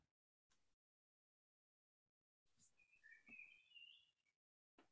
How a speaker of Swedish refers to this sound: Om man lyssnar några kanske man kan höra de här fåglarna i bakgrunden här.